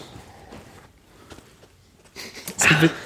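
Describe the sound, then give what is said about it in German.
Faux leather (IKEA leather) seat squeaking: soft rustling and shifting, then a louder, brief creaking squeak with a rubbing, slightly tonal edge near the end. “dieses Lederquietschen, auch mit Kunstleder original nachzustellen”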